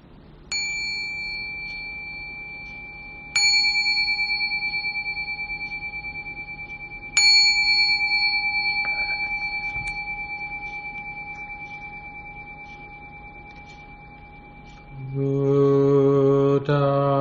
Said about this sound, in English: So I'll ring the bell three times to begin.